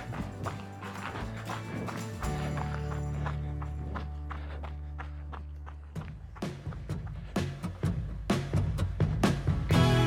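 Quick, rhythmic running footsteps of a runner patter steadily, growing brisker and louder toward the end, over a low sustained hum in the background.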